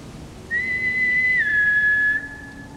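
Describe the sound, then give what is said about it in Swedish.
A single sustained whistle, heard from the other side of a meadow, holds one steady high pitch for more than a second, then drops slightly and continues before cutting off, sounding over a quiet background. “Jag gjorde en ansats till att ropa något i riktning mot ljuset då det plötsligt slocknade och en vissling hördes från andra sidan ängen.”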